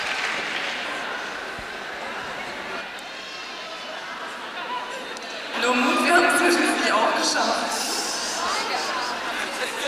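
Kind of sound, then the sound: crowd, audience applause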